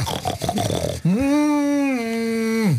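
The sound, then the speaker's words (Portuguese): Rough, snorting grunts of pigs for about a second, then a single long, loud, low moo from a cow that holds steady for nearly two seconds before dropping off, heard from afar in the countryside, with no talking. “ao longe ouvem-se vacas e porcos que convivem alegremente no campo.”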